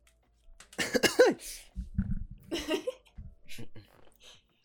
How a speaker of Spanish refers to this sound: no sé, no sé, si voy a censurar mis estornudos, pero igual le da como un toque más.